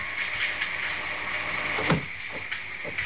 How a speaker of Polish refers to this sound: i teraz on już tą parę cały czas robi i słyszymy takie charakterystyczne pukanie. Tak. To znaczy, że on tak może przez 3 minuty.